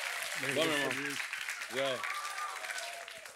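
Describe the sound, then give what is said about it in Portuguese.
A round of applause for MC Marcinho and Daniel on a show segment about the most romantic man in Brazil, a steady dense wash of clapping that holds for the whole stretch, with voices calling out briefly over it. “MC Marcinho, salva de palmas, Daniel.”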